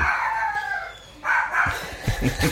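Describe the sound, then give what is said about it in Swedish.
A dog barks and yowls, starting with a long drawn-out howling bark, then a second shorter cry followed by a few quick, sharper barks. “ja, vi har en vakthund här. Vi har, vi har ett fan här inne kanske som säger något. En hund.”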